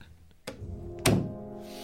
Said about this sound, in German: Ähm, also einfach nicht zuschmeißen, nicht ruckartig, sondern einfach die Tür schließen. Und zwar wie ein gut erzogenes Kind, indem ich die Türklinke sogar runterdrücke.